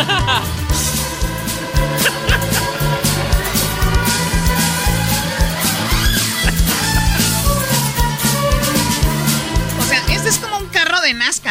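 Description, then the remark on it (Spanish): Loud, dense dance music with a steady beat plays throughout as a DJ speeds the track up; near the end the pitch bends and sweeps upward in wavy rising glides. “Y, ay, le acelera aquí. ¿Escucharon esa parte? Escuchen esta acelera.”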